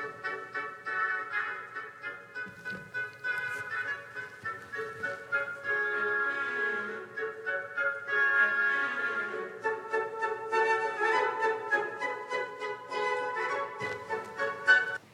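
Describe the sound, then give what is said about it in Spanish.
Orchestral woodwinds in a Tchaikovsky piece imitate swan calls in bright, reedy phrases of quick repeated notes over a fuller ensemble, with steady loudness and no voices. “Muy bien, estamos escuchando cómo Tchaikovsky representa a las aves, a los cisnes.”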